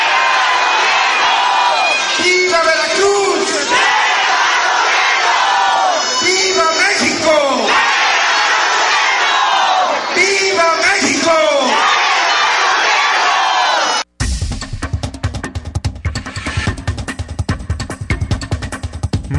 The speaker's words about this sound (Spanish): Bueno, eh, también en Tuxpan, Veracruz, mucha gente inconforme con el presidente municipal, pues mientras él daba el grito de independencia, en vez de que le contestaran viva, contestaban muere el mal gobierno.